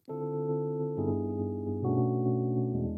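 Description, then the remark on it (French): Sustained chords on an electric piano, changing roughly once a second in a slow progression, with a warm, mellow tone and steady volume, no voices present. “Et euh, ce que j'aime encore mieux, c'est le son du piano électrique.”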